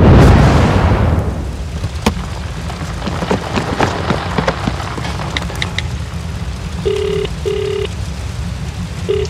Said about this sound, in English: my car just blew up in the Meadowland Raceway parking lot. It's on fire big fire, big flames.